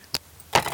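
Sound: sneeze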